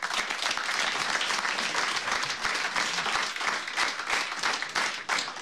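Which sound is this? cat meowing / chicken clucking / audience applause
audience applause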